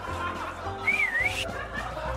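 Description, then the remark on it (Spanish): A person gives one short, wavering whistle that dips and rises in pitch, like a call to get someone's attention, heard clearly over a low steady background hum. “¿Quieres tener relaciones? Le chiflas.”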